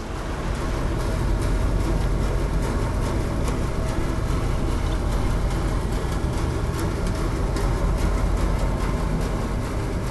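A boat's engine recorded underwater by the JOMOPANS project: a loud, steady low rumble and drone fills the whole stretch, with faint crackling and pulsing texture above it and no voices.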